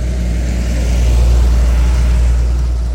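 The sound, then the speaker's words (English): A heavy lorry, not a car, rumbles past, its deep engine drone loud and steady with a low growl swelling slightly in the middle before easing off. “This isn't a car, this is a full blown lorry.”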